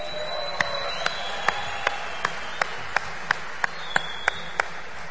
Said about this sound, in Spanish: Les pido un fuerte aplauso para ellos.